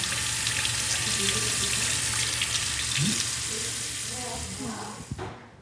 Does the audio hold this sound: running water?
yes